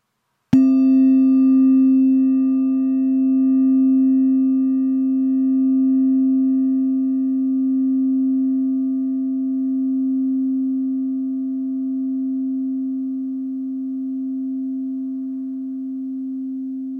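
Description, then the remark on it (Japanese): During a guided breathing practice, a single strike of a rin singing bowl rings out, then sustains a long, steady tone with a gentle wavering shimmer, slowly fading over many seconds with no voices. “リンの音を浴びるような気持ちで聞いてみてください”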